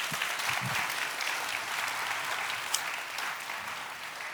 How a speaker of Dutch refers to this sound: Nog een hartelijk applaus voor de spreker vanavond.